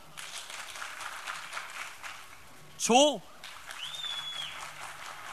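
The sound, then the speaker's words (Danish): An audience claps to vote for an answer on a clap-o-meter, a dense crackling patter that runs nearly the whole time, broken briefly when a single loud voice calls out a word before the applause resumes. “Så jeg siger et, og så klapper man, hvis man tror, det er det.”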